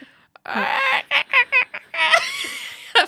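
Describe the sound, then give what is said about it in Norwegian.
A person imitates a hen clucking: a drawn-out squawk followed by a run of short, choppy clucks and another long warbling call, fairly loud. “Jeg har perfekt stemme til å eh, lage hønelyd”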